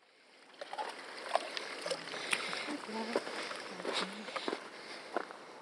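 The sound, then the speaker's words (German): Repeated light, irregular splashes and spatters of water as a woman splashes water by hand onto her vegetable bed in a small field in Madagascar, over a steady background hiss, with faint voices murmuring. “steht auf einem kleinen Acker und spritzt mit der Hand Wasser auf ihr Gemüsebeet.”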